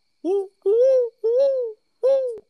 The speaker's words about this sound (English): I hear uh, an owl in the background on your end.